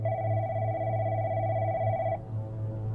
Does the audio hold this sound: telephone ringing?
yes